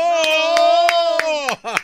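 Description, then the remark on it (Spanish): Half a dozen evenly spaced claps ring out, fairly loud, applauding a teacher for his reading, beneath a sustained voice holding a long, drawn-out vowel as if cheering. “¿A quién le aplaudieron?”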